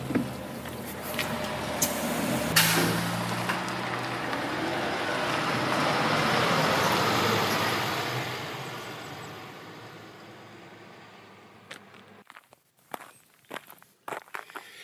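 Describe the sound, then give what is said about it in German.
A large bus's engine rumbles and swells as it idles and pulls away along a road after a ride from St. Pölten, Lower Austria, via Treisen and Lilienfeld, then fades, leaving a few crisp footsteps on pavement in a quieter street. “Eben nach topografisch wie botanisch wirklich abwechslungsreichen eineinhalb Stunden über Treisen und Lilienfeld dem Bus aus der niederösterreichischen Landeshauptstadt St. Pölten entstiegen, heiße ich Sie herzlich willkommen”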